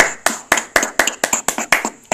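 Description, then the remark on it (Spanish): Applause for a magician in the form of steady hand clapping: about nine sharp, bright claps at an even, brisk rhythm, moderately loud, with no voices. “Oye, maestro, eres maestro, Un aplauso. Un aplauso.”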